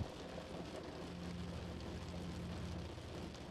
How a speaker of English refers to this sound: Laying present, only appreciating every soft touch of the warm sheets, the sound of the rain, and how peaceful you are inside.